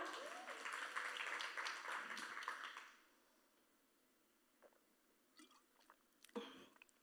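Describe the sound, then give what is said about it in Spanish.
A crowd claps steadily for about three seconds, a dense burst of applause that quickly fades, leaving a few scattered handclaps and faint rustles afterward. “Un aplauso para mi conversador.”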